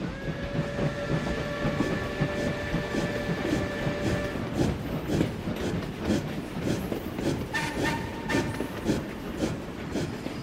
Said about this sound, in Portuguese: A frase está escrita na lateral de um dos vagões do antigo trem, que até hoje carrega viajantes atraídos pelos encantos da Serra Gaúcha.